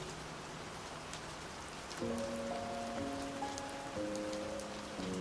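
Steady rain from a thunderstorm patters in a dense, hissing wash, joined after a couple of seconds by soft sustained musical tones layered over the downpour. No one speaks.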